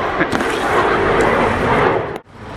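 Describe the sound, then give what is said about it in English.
A loud, steady fighter jet roar fills the whole stretch, broad and rumbling like an aircraft passing overhead, then cuts off abruptly near the end; in Paris in the mid-afternoon. “Sounds almost as crazy as recording a podcast while there's a fighter jet flying overhead.”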